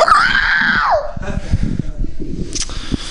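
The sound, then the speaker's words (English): A person lets out a shrill, shrieking screech imitating a velociraptor, a high wavering cry lasting about a second, followed by breathy laughter and chatter. “That's my dinosaur noise.”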